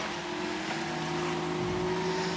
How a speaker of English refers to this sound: we'll just let the waves go past.